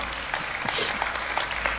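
An audience claps together in a dense, steady burst of applause for the Lord during a Spanish-language church sermon, many hands overlapping with no clear rhythm, filling the room at moderate loudness with no voices standing out.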